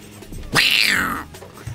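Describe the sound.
A person in a studio imitates a cat with one drawn-out meow, loud, rising then sliding down over about half a second, with quiet background noise before and after.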